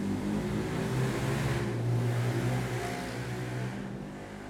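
A loud motorcycle engine roars past, its throaty growl swelling around the middle and then easing off toward the end, with no voices.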